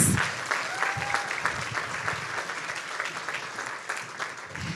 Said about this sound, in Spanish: Un aplauso para ellos.